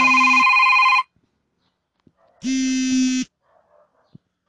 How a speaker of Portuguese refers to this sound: Pô, tocou o telefone no meio da gravação do podcast. E é a Tim me cobrando uma porra de uma fatura de um mês.